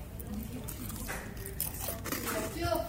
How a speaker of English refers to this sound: That's a good crunch. That's a good crunch.